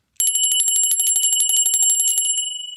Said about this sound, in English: That was the bell, meaning that Mrs. Myers wants to see all the actors on stage right now so we can get ready for the matinee.